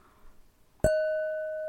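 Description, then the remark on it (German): A phone taps once against a drinking glass, a sharp clink that leaves a clear, bell-like ring sustaining and fading slowly after a moment of quiet. “Ich habe mit meinem Telefon egal. Glas gehauen.”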